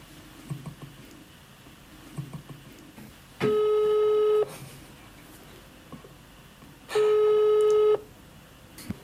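A telephone ringback tone sounds twice, each a steady one-second buzz with a pause between, over faint background noise, as a call to an intern goes unanswered.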